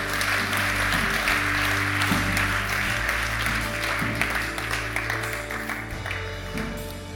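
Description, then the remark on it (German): A church audience applauds God loudly and steadily, a dense wash of many hands clapping that holds for several seconds, with a low sustained musical tone humming underneath. “Lass uns Gott mal fetten Applaus geben.”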